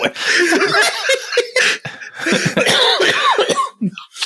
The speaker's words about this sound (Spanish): ahí está una, una risa que se volvió tos.